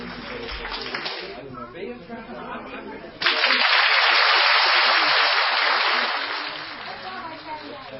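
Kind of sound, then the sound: crowd, audience clapping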